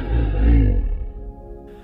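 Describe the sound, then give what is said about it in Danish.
A lion gives a single deep, rumbling roar, loud, swelling quickly and then trailing off into a low growl over a couple of seconds, with no voices present. “Så tæt, at du kommer til at drømme om løver, elefanter og næsehorn ude i din baghave.”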